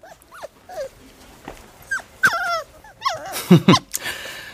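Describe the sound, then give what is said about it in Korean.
A black mixed-breed puppy named Murphy, about one month old, whimpers and whines in high, wavering cries, broken by short yips and a few low, rough growls, with no talking. “태어난 지 한 달 정도밖에 안 된 검은색 잡종 강아지였다.”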